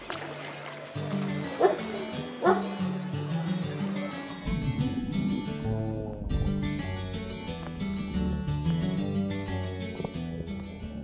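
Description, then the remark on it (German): Two sharp dog barks ring out early on, a second apart, over a steady bed of background music and outdoor bustle that continues after the barking stops, as dogs are brought in to swim at a chlorine-free outdoor public swimming pool. “Ähm, es kommen immer noch mehr Hunde jetzt noch rein”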